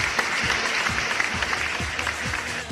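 A crowd claps loudly and steadily to celebrate the start of spring, a dense wash of many hands with no break for almost three seconds. No one speaks over it.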